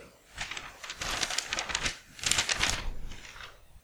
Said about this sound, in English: Okay, so I'm going to open up the game paper. Are you ready?